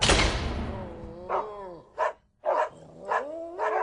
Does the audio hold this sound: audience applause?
no